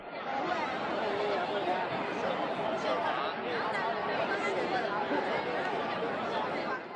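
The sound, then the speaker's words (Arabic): A dense, steady babble of many overlapping voices fills the scene, a busy street crowd chattering in Beijing, China, where many pedestrians wear masks, with no single speaker standing out and no pauses throughout. “وانتوا عم تمشوا بالشوارع رح تلاحظوا انه كتير من المشاة لابسين كمامات”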